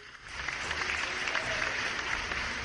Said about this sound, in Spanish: Ya llegué. ¿Qué? ¿Y mis aplausos?